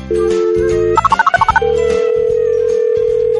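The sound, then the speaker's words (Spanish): An outgoing phone call to the caller's mother: a steady dial tone, a quick run of about eight keypad beeps, then a long continuous line tone, all loud with no voices. “Ah, mejor nada más llámale por teléfono.”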